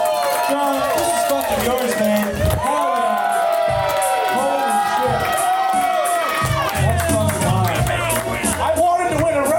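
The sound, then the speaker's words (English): A crowd cheers and applauds loudly and steadily, with overlapping shouts and high whoops rising above a continuous wash of clapping and excited voices throughout. “Guys, let's hear for both of them.”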